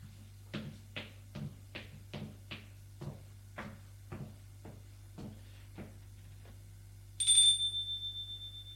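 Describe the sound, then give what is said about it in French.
A steady run of about ten footsteps, then a single bright doorbell chime at an apartment door rings out and slowly fades, with a low hum underneath throughout. “Il a sonné à la porte de l'appartement.”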